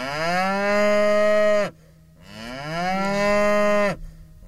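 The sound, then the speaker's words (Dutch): A cow moos twice in a row, loud, each low call long and drawn out; the second moo swoops upward about a third in pitch before cutting off, with no talking. “Ik weet niet of jullie dezelfde loei achter elkaar hebben gezet.”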